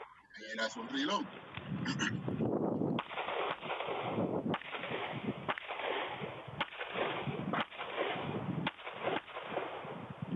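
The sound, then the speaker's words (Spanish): Video game gunfire: sharp, punchy shots ring out every second or so over a dense, muffled battle din, with some brief mechanical clatter near the start suggesting a weapon being reloaded. “aquí tú tienes ocho tiros más. Exacto. Y, dos tarjetas de ellos lejos, aprovecha y haz un reload.”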